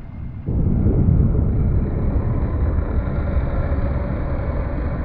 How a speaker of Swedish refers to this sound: Ganska så snabbt så förstår du vad som har hänt. Boxerbåten Gascon 4 har nått havets botten.